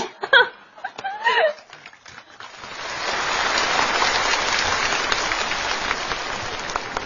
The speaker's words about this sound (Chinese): 怎么那么不自觉呢？还鼓掌？